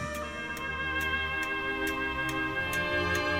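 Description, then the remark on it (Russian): A clock ticks steadily, about two ticks per second, each tick a sharp, crisp click over a continuous sustained musical drone. No one speaks. “Это часы.”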